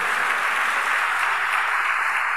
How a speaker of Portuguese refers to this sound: Irmãos queridos, se nós queremos aplaudir o Rei dos Reis, nós vamos aplaudir o Rei dos Reis. A Ele a honra, a glória e o louvor.